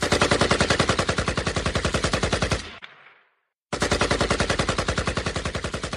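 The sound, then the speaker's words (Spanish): Rapid automatic gunfire rattles in a dense, loud burst, stops abruptly into a brief echoing decay and silence, then resumes just as fast and heavy. No voices are heard. “Esmeralda entonó melodías en su silencio para no escuchar el sonido de las balas”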